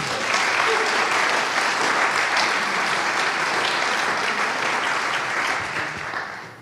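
Sustained audience applause, a dense, steady wash of many hands clapping at a consistent loudness for several seconds before tapering off slightly at the end.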